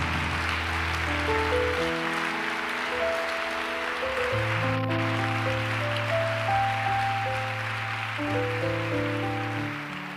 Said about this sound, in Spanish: Ahora sí, dele ese aplauso a Él, por favor, con todo el corazón.